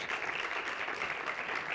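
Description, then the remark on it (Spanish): Steady audience applause for a presenter during a slide presentation, many hands clapping at once in a dense, continuous patter that holds an even loudness throughout, with no voices coming through. “¿Podemos darle un aplauso a Dani, por favor?”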